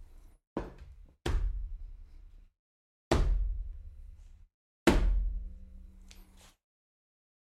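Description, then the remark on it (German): A phone is tossed onto a table several times, each landing a heavy, booming thud with a deep resonant tail, spaced a second or two apart, loud with no talking. “Cool, wenn ich mein Telefon hier auf den Tisch schmeiß, Klingt's, als würde hier ein Dinosaurier durchlaufen.”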